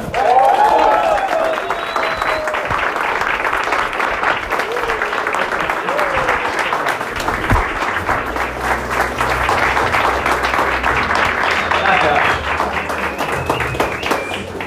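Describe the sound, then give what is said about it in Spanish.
A large standing audience claps steadily and loudly for about fifteen seconds to welcome a speaker, with scattered whoops and whistles rising over the dense applause and a faint low hum entering partway through. “Así que vamos a ponernos de pie, y vamos a recibirlo con de Palma a nuestro rango de líder”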